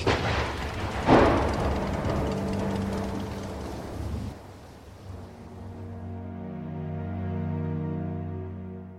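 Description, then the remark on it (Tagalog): A heavy rainstorm during a motorcycle ride, with a dense roar of rain and one loud booming crash early on, after which the downpour thins out and a steady low droning hum takes over. “Ay, ang lakas na ng ulan! Di na basta ulan lang to ah. May bagyo yata eh.”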